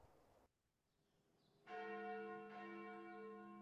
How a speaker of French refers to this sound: On fait retentir une cloche dans la tour.